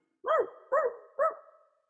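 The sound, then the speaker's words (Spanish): A dog named Nieve comes out from under a table and barks at a man three times in a steady rhythm, each bark loud with a short ringing tail, and no voices in between. “Nieve sale debajo de la mesa y comienza a ladrarle al hombre.”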